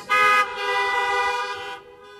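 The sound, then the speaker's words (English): Car horns honk: one short, loud blast followed by a longer sustained honk lasting over a second, then a fainter tail. No one speaks. “Honk your horn if you understand what an R number is.”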